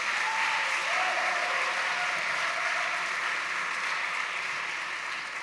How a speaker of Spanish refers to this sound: Bueno, muy bien, démosle un aplauso aquí a nuestros ganadores.